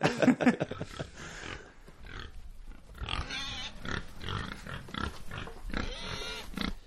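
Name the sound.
pigs grunting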